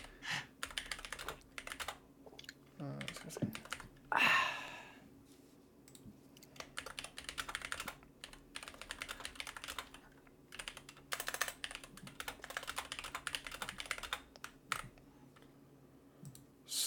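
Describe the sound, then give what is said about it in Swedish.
Rapid, irregular computer keyboard typing clatters for several seconds as a link is posted to social media, dense bursts of key clicks with short pauses, over a low steady hum; no one speaks. “vi kanske ska twittra ut den här jävla länken. Ja, ja det är på väg.”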